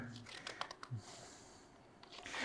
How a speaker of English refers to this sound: let me get my page turned.